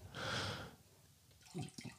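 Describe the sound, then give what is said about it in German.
Water pours into a glass in a short rushing burst, followed by a few small splashes and drips, with no talking. “Schütt ruhig ein.”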